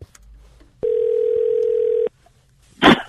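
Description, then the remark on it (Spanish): A steady, loud telephone dial tone hums for just over a second before a prank call, then cuts off abruptly; a brief burst of noise like a handset click follows. “comenzó a llamarse trick or treat anoche por teléfono.”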